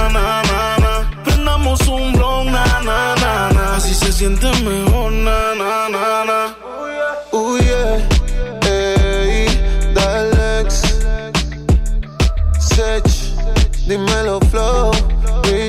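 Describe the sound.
A loud pop song plays throughout, with a sung vocal riding over a steady thumping beat and deep bass; the low end drops out briefly midway before the groove returns.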